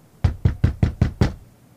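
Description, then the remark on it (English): Six firm, evenly spaced knocks on the wooden door of a dark, silent house, fairly loud, each with a solid low thud, followed by quiet. “But at last, he arrived at a dark, silent house and knocked on the door.”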